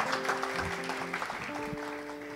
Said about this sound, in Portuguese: Uma salva de palmas para esses sobreviventes aí, ó.